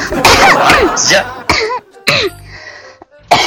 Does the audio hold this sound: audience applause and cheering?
no